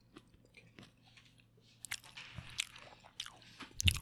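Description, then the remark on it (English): Chewing of hot roasted Brussels sprouts and sweet potato into the mic, with wet squishy bites and occasional crunches in an irregular rhythm, fairly quiet with no talking. “Sorry, I'm gonna chew in the mic.”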